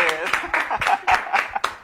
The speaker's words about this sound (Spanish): un aplauso, señores.